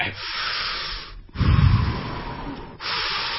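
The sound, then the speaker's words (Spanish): A voice imitates scuba diver breathing: a long hissing inhale through a regulator, a low rumbling exhale, then another hissy breath, with no talking. “bueno, respiración buzo.”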